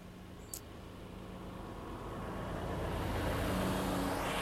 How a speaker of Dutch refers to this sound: Even de vrachtwagen voorbij laten.